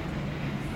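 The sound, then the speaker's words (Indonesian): A steady low rumble of a train passing on rails near a boarding house, a continuous mechanical drone with no distinct clacks in this brief moment and no voices. “suara kereta ya”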